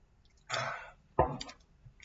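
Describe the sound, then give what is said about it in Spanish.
An airy slurp as someone sips the last of their wine, followed by a short throaty gulp as it is swallowed. Quiet and intimate, with no talking. “Yo eh, yo, mientras me tomo el último sorbo de vino,”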